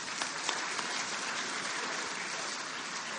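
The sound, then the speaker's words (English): A crowd applauds steadily, a dense, even wash of many hands clapping at once with no break, holding level from start to finish at a moderate volume. “Would you please give them a round of applause?”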